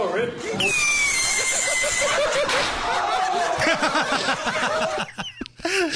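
During a live-streamed attempt to launch bottle rockets, a rocket stuck in a man's butt gives a shrill whistling screech over a noisy crowd, then a sharp pop, followed by a burst of loud laughter, shrieks and excited shouting from several people.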